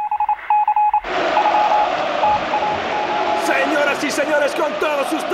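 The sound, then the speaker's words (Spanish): A short series of clipped electronic tones, a public address chime announcing a new player joining a friendly match, rings out alone before a loud wash of crowd noise and overlapping voices takes over. “Escuchad que parece que lo van a anunciar otra vez por megafonía.”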